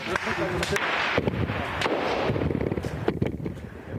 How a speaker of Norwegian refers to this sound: Gjennom natten har lyden av eksplosjoner og skuddsalver preget millionbyen, og 15 mennesker skal være drept.